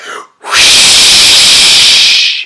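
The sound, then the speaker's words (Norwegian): A voice imitates a wolf blowing hard: one long, loud, breathy whoosh lasting about two seconds, preceded by a short intake of breath. “Og ulven pustet.”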